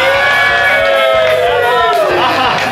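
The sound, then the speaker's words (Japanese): Dense, loud crowd chatter at an after-party fills the space, many overlapping voices talking and calling out at once in a lively, continuous hubbub with occasional raised shouts. “デコエス高野菜の打ち上げ中にポッドキャストの収録をやっております”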